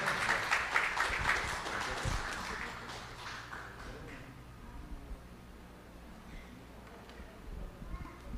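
An audience breaks into applause, a dense patter of many hands clapping that is loudest at the start and gradually thins out, fading to scattered claps and low murmuring by the end.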